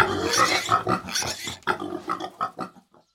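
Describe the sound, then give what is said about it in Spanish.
A herd of pigs grunting and oinking together in a loud, busy burst, with overlapping snorts and squeals that trail off into a few scattered grunts before going quiet. “Como nosotros no teníamos un lugar para llevar ese ayote, mi papá dijo, vamos a engordar una manada de chanchos.”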